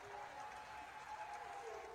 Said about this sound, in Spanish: quiero que veas y que me digas qué opinas de esta reacción que tuvieron los Titans para recibirlo en las instalaciones. Aplausos por todos lados.